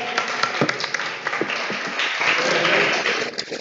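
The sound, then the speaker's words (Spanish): Steady applause from an audience after number 4 is drawn in a prize draw for an Arcade Vintage mug. It is a dense wash of many hands clapping at once, sustained and fairly loud for a few seconds with a faint hint of voices beneath. “Un aplauso.”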